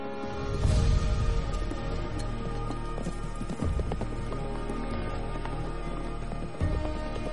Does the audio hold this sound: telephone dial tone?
no